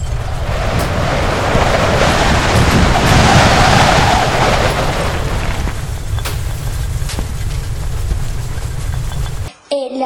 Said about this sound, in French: Le loup gonfla ses joues, souffla, souffla de toutes ses forces.